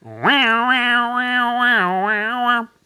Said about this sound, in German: Was sagen Sie zu unserem neuen Jingle? Ist er das?